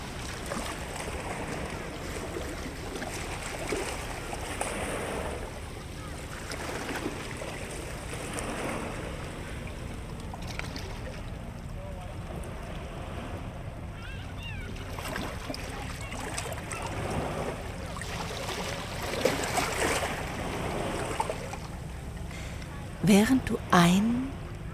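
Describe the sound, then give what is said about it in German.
Ocean waves break on a shore at the edge of a city in a steady, rushing wash of surf that swells and recedes. A few brief knocks and splashes sound near the end. “und ausatmest, stellst du fest, dass jeder deiner Atemzüge mit dem Brechen einer Welle zusammenfällt.”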